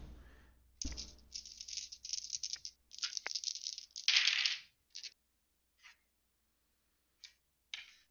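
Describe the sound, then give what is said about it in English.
Dice rattle and clatter across a hard surface for several seconds as they are rolled for a notice roll, followed by a few scattered, isolated clicks as they settle. Fairly quiet, with no talking. “Oh man, negative two right now. Fuck, these dice are bad too.”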